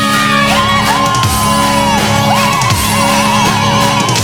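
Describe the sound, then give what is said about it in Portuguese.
A loud crowd yells and whoops together in a sustained, overlapping roar, with high wavering cries rising above a dense wash of voices for several seconds, shouting on cue after a sing-along. “Agora o grito, galera!”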